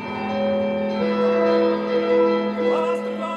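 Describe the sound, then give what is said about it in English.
Orchestral bell chiming by Mussorgsky, with thick, sustained dissonant chords introduced beneath the bells, the clashing harmony holding steady and fairly loud throughout with no voices. “there's already a sense of doom built into it because one of the things that Mussorgsky very cleverly does is he takes the orchestra and he has these chords that are introduced beneath the bell chiming sounds, and these chords are very dissonant.”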